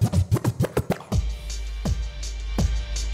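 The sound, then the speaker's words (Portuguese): Rapid turntable scratching by a DJ: a quick run of about seven sweeping back-and-forth scratches, then a few slower, spaced swipes over a sustained low bass tone. Loud, with no talking. “Vamos de DJ? agora? Agora você que Toma. comanda um pouco aí pra nós.”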